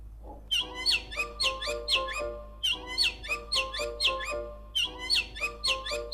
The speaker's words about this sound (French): Alors je voulais commencer mon album avec le chant des oiseaux.